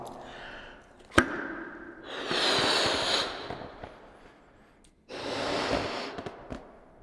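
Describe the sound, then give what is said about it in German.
A green balloon is blown up by mouth in a room in two long, breathy puffs of air, the second after a short pause, preceded by a sharp click, with a faint rubbery squeak during the first breath. “Jetzt blasen wir wieder einen grünen Luftballon in diesem Raum auf.”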